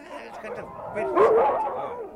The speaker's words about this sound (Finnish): Olkaa nyt sinä hiljaa, koirat! Näyttävät olevan villiintynyttä lajia.